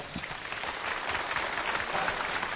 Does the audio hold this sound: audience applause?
yes